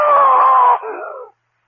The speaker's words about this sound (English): Yes. I screamed. I screamed so loudly there was blood in my throat.